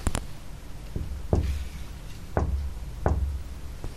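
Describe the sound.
Three firm knocks on a window, evenly spaced about a second apart, each a sharp hollow rap with a low thud, fairly loud, with a faint tap beforehand and no talking.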